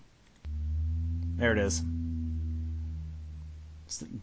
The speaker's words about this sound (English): Beautiful second moan there, uh, like the iron bulkheads slowly warping.